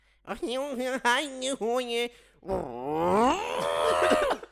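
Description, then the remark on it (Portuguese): A voice imitates a sound heard on a TV news broadcast: several short, loud yelling bursts like a Chinese man shouting, then a car revving flat out in first gear with a long, strained tone that climbs steadily in pitch. “E ouvi um chinês a berrar, parou e ouço um carro de primeira a fundo.”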